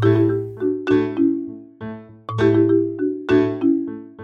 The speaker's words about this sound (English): there's a second keyboard part that layers on top of that a little bit later. It's playing what sounds like a marimba sound, but I don't actually think that it's a marimba. I think it's just a keyboard. And when you put them together, you get this.